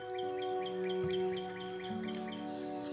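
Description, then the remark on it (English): Birds chirping steadily in quick, repeated high-pitched bursts, layered over a constant low tonal hum, with no one talking. “Birds are starting to chirp, and it's looking to be a good day.”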